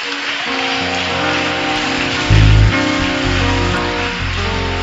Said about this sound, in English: Stand to your feet and clap for Jesus.